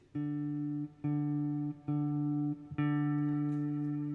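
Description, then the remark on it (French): Four guitar notes plucked with the thumb instead of a pick, all on the same low pitch, each ringing steadily for just under a second before the next. Clear, with no voices. “Là j'ai fait, euh, tu vois de suite le ah. son est pas le même. Pouce.”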